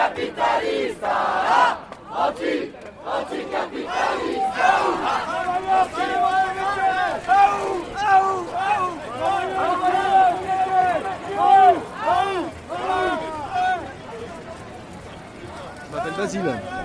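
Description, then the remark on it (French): A large crowd of voices shouts and chants together in a dense, continuous roar at a protest demonstration, partly about pension reform, on Tuesday 10 December, with rhythmic swells of massed yelling and overlapping cries that stay loud throughout. “Euh, très simplement, est-ce que vous avez passé une bonne manifestation Est-ce que ça s'est bien passé aujourd'hui, euh, mardi 10 décembre”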